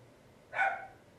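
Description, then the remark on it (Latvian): A single short bark from the speaker's dog rings out once at moderate volume against a quiet background, with no one speaking. “Suns mans, es domāju, ka neapstāsies rīt, tāpēc es...”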